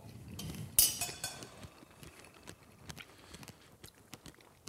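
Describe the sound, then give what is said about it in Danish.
Cutlery clinks against dishes as strawberries are served and eaten, with a sharp clatter near the start followed by scattered taps, chewing and soft handling noises. “Nå, men skal vi prøve at guffe lidt noget jordbær? Vi, vi guffer nogle jordbær.”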